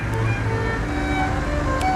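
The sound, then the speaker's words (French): A car engine rumbles steadily in a street in Florence, a low, continuous drone with a faint hum on top and no voices; it is not a private car but someone working. “une voiture. Pas une voiture privée, c'est plutôt quelqu'un qui est en train de travailler.”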